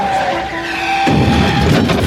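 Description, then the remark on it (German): A yellow Mercedes's tires screech in a steady, high squeal for about a second, then give way to a louder, rough roar of skidding and engine noise as it hits a woman stepping off the curb to cross the street. No one speaks. “Erfasst sie ein gelber Mercedes.”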